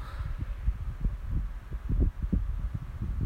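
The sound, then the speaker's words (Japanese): Low, gusty rumble of electric fan wind buffeting a microphone, with irregular thumping bursts and a steady murmur, fairly loud, no voices. “扇風機止めたけどあっつまあちょっと風の音が入るかもしれませんけど”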